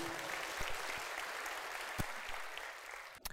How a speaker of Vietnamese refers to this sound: dành cho anh một tràng vỗ tay thật lớn này, củ chi.